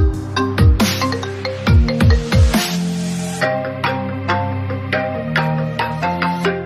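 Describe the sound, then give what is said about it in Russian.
An iPhone 11 ringtone plays on its own: a bright, bouncy electronic melody of plucked synth notes over punchy, dropping bass hits, loud, with no talking. “Рингтон 11 айфона”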